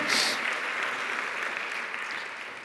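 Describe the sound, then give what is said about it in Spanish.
A church audience applauds for Christ during a sermon, clapping steadily together in a dense, sustained wash of applause from many hands for a few seconds, slightly louder at the start, with no voices standing out. “Dale un aplauso a Cristo por eso, amado hermano.”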